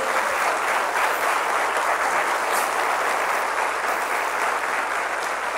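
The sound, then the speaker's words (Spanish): A church audience breaks into sustained applause for the Lord, a dense, steady wash of many hands clapping at an even loudness for several seconds, with no voices rising above it. “Le puedes dar un aplauso al Señor por eso.”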